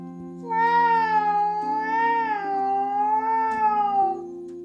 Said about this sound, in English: that night, when Muffin was asleep, she heard a little cry. It sounded like a cat, but fortunately, Muffins couldn't go there right now. But then she heard the meow again.